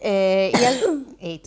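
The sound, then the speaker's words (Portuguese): One loud sneeze: a drawn-out voiced build-up that breaks into a sharp, hissy burst, followed by a brief spoken exclamation. “saúde para tu.”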